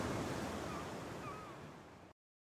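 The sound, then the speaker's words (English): Steady roar of sea waves and gusting wind on a beach, a dense wash of surf noise that stays loud and continuous for about two seconds before cutting off abruptly. “It's so windy! Look at the sea and the waves!”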